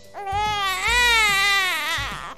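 A baby cries in one long, loud wail, its pitch rising and wavering, with soft low thumps pulsing underneath.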